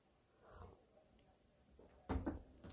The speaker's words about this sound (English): Sorry, just taking a sip of my coffee here.